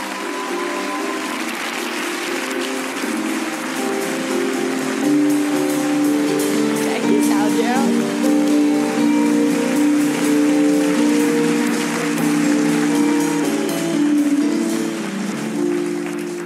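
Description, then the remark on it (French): A crowd applauds an actress loudly and continuously for the whole stretch, a dense, steady wash of applause that swells slightly midway and holds without any talking over it. “Bon, en tout cas, veuillez faire un tonnerre d'applaudissements pour une comédienne talentueuse.”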